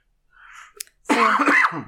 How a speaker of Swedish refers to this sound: Oj, ursäkta, nu hostar jag mitt i podden. Men det kan vi klippa bort.